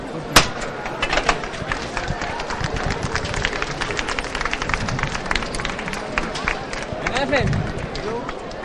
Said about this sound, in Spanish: Vamos a escuchar esa levantada, del paso de palio de la soledad.